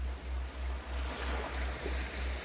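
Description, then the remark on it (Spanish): A steady wash of ocean surf rolls onto a natural white-sand beach on an island, soft and continuous, with a low rhythmic rumble pulsing underneath, under a radiant cloudless sun with a sea breeze. No one speaks. “Te encontrás en una cama cerca de las olas, con la arena blanca”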